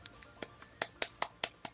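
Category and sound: crowd, applause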